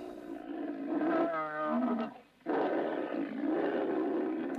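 A donkey brays loudly at a village well in a desert oasis where camels rest, in harsh, rasping, strongly pitched cries, pausing briefly midway before launching into a second long bray. No one speaks.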